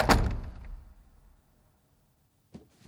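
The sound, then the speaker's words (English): An apartment door opens with a loud clunk that rumbles away over about a second, followed by quiet and then a softer knock near the end, as someone carrying a box enters a big empty apartment. “I open the door and I just see a big empty apartment.”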